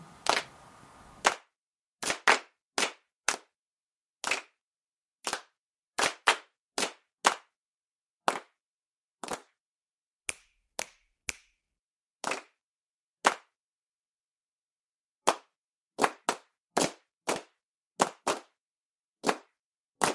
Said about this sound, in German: Ach so, ich sollte vielleicht noch was dazu sagen. und zwar Schnipsel 2 ist nur geschnipst und geklatscht.